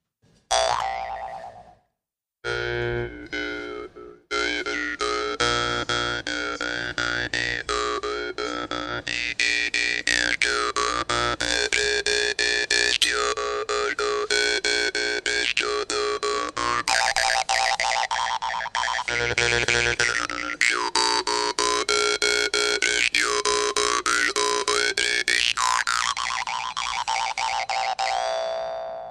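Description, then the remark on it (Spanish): A small metal instrument played at the lips gives a steady, twangy buzzing drone with wah-like shifting overtones and rhythmic plucks. It plays alone, after a couple of short stops at the start. “Para quienes están escuchando, eh, ese instrumento eh, se lo ponen los labios y el sonido en realidad que están escuchando”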